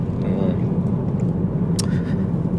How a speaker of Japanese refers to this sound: えー、今はですね、えー、小倉ですね、ファンファン北九州の収録から今、福岡市の自宅に向かって車を走らせております。